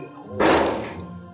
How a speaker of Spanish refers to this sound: Puerta. una muerte impactante. Impactante, como el sonido de esa puerta.